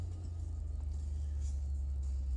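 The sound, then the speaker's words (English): A car engine rumbles steadily, a deep, continuous drone as the car pulls out onto a road, with faint road and cabin noise above it and no talking. “I'm here in my office live today in my car trying to pull out onto the road here.”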